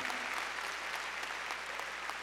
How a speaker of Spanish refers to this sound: A ver, palmas fuertes a nuestro Señor.